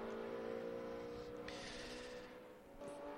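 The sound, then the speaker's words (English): The engine of the number 25 race car, driven by Dirk Werner, roars steadily as he flings the car through the esses at Virginia International Raceway (VIR) during the Oak Tree Grand Prix. Its tone rises and falls through a series of quick bends, loud, with bursts of gritty exhaust noise. “He's certainly flinging the car through the S's there.”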